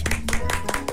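Two people clap their hands together at the opening of season 2 of the game show "Hvad er det værd?", in a quick, slightly uneven patter of about eight or nine sharp claps, with a faint steady hum underneath.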